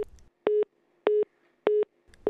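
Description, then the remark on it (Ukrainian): A telephone busy signal, like the phones of Pripyat that seemed constantly engaged after telephone service was cut on the night of 26 to 27 April, beeps three times in a steady, even rhythm, each short tone clear and fairly loud, with brief silences between and no voices. “Чутки країною ширились, Люди з інших міст намагалися дозвонитися, а телефони прип'яті були постійно, ніби зайняті.”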